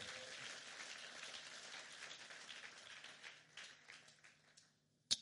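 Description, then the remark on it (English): A church audience gives God a hand in a thin, subdued patter that runs steadily for about four seconds, then thins out and fades, ending with one sharp tap. No one speaks over it. “No, I didn't like the clapping.”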